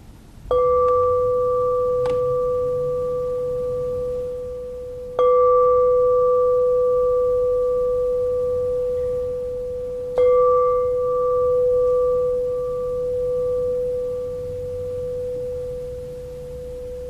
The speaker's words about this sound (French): si vous entendre les sons de la cloche, si vous vivre ça, rien à faire.